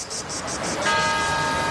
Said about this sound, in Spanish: Estos son algunos de los sonidos más auténticos de nuestro país. El rumor de la siesta después del almuerzo.